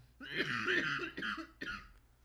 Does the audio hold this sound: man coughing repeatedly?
yes